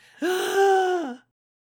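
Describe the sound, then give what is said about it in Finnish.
A single loud, drawn-out gasp made by a voice imitating the sharp breath after a sleep apnea breathing pause, strained and throaty, lasting about a second before cutting off into silence. “melkein joka minuutti oli mulla hengityskatkot. Se on niinku”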